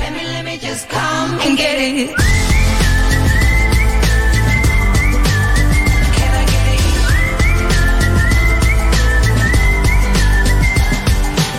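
A loud, bright pop chorus with a steady beat, a short sung melody answered by a recurring high whistled line that rises and repeats throughout, after a brief busy intro.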